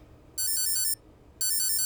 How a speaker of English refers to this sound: and then my alarm goes off at 4:30 a.m. It's no picnic.